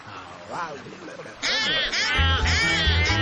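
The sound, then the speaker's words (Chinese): Ducks quacking, a few scattered calls at first, then a loud chorus of overlapping, nasal quacks that continues steadily to the end. “对，鸭子，大喊，嗯嗯，louder，嗯嗯， 他们听见了。”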